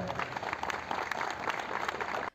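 A crowd claps steadily throughout, a dense, even wash of many hands with no voices standing out, cutting off abruptly at the end. The applause invites mayor Mustafa Elvacıoğlu onto a balcony to perform a couple's wedding ceremony.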